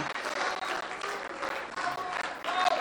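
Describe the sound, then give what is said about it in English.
An audience claps and cheers, giving praise to God, dense sustained applause continuing steadily for the whole stretch, with no one speaking over it. “I wish somebody would give him praise right now for about 30 seconds”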